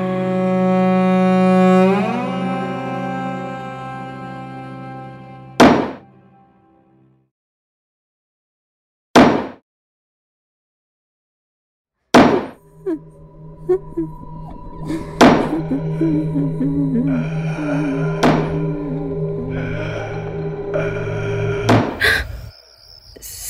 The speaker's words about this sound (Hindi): सुनिए ये हथौड़े की आवाज कहाँ से आ रही है जरा देखिए ना